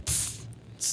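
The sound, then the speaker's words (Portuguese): A voice imitates a fizzy hiss, like a bottle being opened: a loud breathy burst lasting about half a second, a brief gap, then a second short hiss starting up. “É tipo abrir uma garrafa.”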